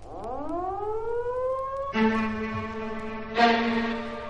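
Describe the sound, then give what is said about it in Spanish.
Alarm sirens wail loudly, their rich harmonic tones rising steadily, then jumping to a higher sustained pitch twice with sudden surges in volume. No voices are heard. “De repente sonaron unas sirenas de alarma.”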